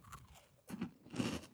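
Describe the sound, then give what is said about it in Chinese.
Crisp crunching as someone bites into a nut-coated candy with a chopped-almond and white chocolate shell around a peanut butter and crispy wafer-roll center: two bursts of brittle cracking chews following a soft initial bite, with no talking. “哎，杏仁，所以它这样还蛮脆的耶， 它外面都是坚果。”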